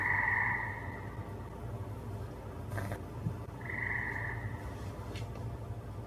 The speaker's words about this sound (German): Das scheinen Frösche zu sein.